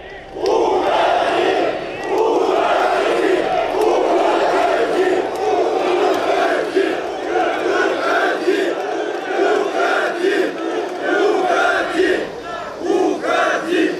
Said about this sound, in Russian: Лозунги «Уходи» на встрече с трудовым коллективом Минского завода колесных тягачей